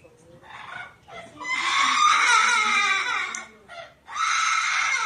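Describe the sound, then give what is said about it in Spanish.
A parrot cries out in distress with harsh, shrill screeches on seeing its dead owner in her coffin: a faint opening call, then a long piercing wail and another loud burst after a short pause, alone. “Y es que si tenemos el sonido, van a oír el, el llanto del perico.”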